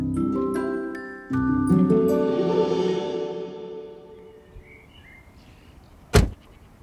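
Musical tones ring out and slowly fade, then after a quiet pause a single solid car door slams shut as a man gets out of the car, a short sharp thud near the end.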